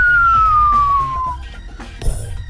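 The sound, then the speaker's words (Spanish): A loud cartoon falling whistle, the sound the coyote makes when he falls, glides steadily downward in pitch for over a second, then fades, followed shortly by a brief noisy burst like an impact. “Porque quería comprobar si realmente cuando uno se tira de un edificio hace el sonido que hace el coyote cuando cae”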